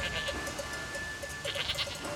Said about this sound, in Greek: Ο Τζέιμς έφτασε σε μια ισόπεδη διάβαση και είδε ότι το κουδούνισμα κινδύνου ήταν απλώς μερικές κατσίκες που διέσχιζαν με ασφάλεια τις ράγες. Κουδούνια από κατσίκες!